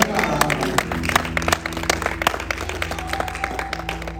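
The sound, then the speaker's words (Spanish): An audience at a church service claps steadily for several seconds in applause for the Lord, a dense wash of many hands, with sustained musical tones and some voices underneath. “Dale un fuerte aplauso al Señor.”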